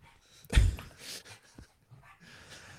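A dog breathes heavily and pants: one loud, huffing exhale followed by several softer, irregular breathy pants, with no voices.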